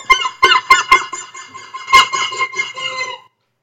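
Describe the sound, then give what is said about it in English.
A squeezed plastic unicorn toy lets out a run of sharp, nasal squawks, like gulls calling: four quick bursts, a pause, then a longer wavering cry, loud with no talking. “And I just happened to grab one at Party City and give it a squeeze.”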